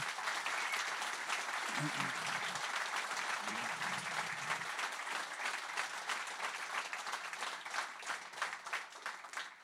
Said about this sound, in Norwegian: De skal jo ikke komme opp på scenen ennå, ettersom det er film først, men jeg syns vi skal gi en eh, liten applaus og en varm velkomst til de tre.